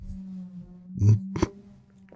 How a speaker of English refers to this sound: And if, if you can hear what sounds like a elephant drowning in the background, I'm pretty sure the chiropractor upstairs is getting his, his vacuum